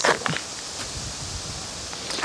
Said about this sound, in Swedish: Nu ska vi se om det blåser lite mycket här faktiskt.